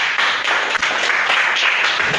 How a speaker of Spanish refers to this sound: Aplauso para Fusion.